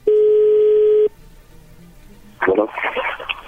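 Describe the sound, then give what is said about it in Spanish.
A steady, loud telephone dial tone holds one even pitch for about a second as a phone call is being dialed, then cuts off abruptly; a quiet pause follows before a voice comes on the line. “Bueno, pues ahí se está marcando”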